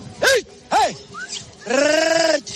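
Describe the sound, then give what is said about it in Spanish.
Several sheep and goats in a flock of about 700 sheep, herded in Spain on the way up to Cibeles, bleat in quick succession: two short wavering calls, a brief faint one, then a long, loud, quavering bleat, against a low background murmur. “Tengo unas 700 ovejas detrás mío y tengo a una que me está pisando los talones.”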